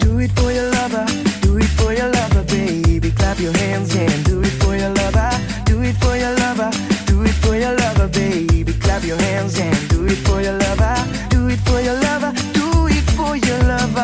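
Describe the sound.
An upbeat pop song plays loud and continuous, a singer repeating the same catchy chorus line over and over above a driving, steady beat and bright backing instruments.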